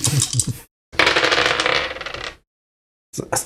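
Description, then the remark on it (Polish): Dice, including one penalty die, rattle and tumble across a table during a tabletop game, in three bursts of bright clattering: a short one, a longer rolling spell, then a brief rattle after a silent pause. No one speaks. “Jedna kostka kary, tak?”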